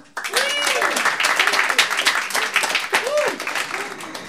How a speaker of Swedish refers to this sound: Stor applåd!